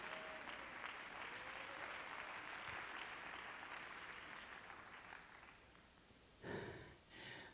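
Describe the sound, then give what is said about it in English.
A church audience claps their hands in praise to God in a sustained, dense wash of clapping that gradually thins and softens, followed by a couple of short breathy bursts at the end. “One more time, clap your hands to the Lord and give God praise.”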